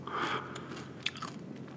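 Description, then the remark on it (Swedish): Chewing with wet, crunchy bites and mouth noises over about two seconds, a sharper crunch near the end, quiet background and no talking. “Jag ska bara tugga lite först.”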